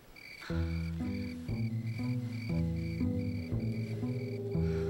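Crickets chirp in a steady, evenly spaced pulse of high-pitched trills, laid over loud, sustained low musical chords that shift roughly every half second.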